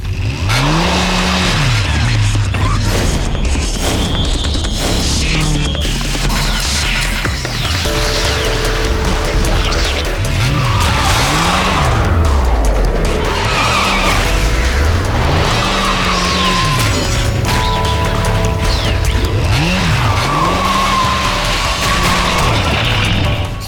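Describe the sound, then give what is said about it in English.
In the video game Bayonetta, a loud motorcycle engine ridden by angels revs repeatedly in rising and falling sweeps on a cliff as the moon comes out, mixed with screeching tire skids and a dense wash of game action noise throughout. “Ooh, and the moon comes out, and with it, some angels on a motorcycle.”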